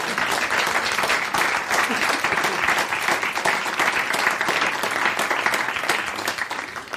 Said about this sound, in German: Ihr dürft ruhig klatschen.